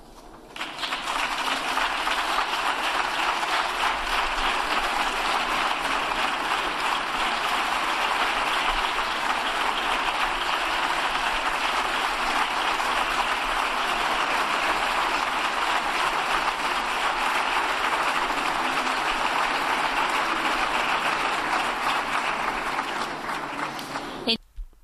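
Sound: parliament applause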